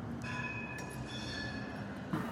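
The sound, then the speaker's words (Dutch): A tram rolls past on a busy city street in central Amsterdam, heard from a third-floor apartment, a steady rumble with faint high metallic whine tones drifting over it, continuous throughout. “Op drie hoog met een prachtig uitzicht over de drukke stad en het geklingel van trams op de achtergrond.”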